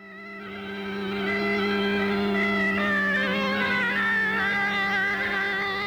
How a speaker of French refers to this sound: Le tailleur, tout fier, gonfle son bignou et commence à jouer. Enfin, à jouer. Il essaie,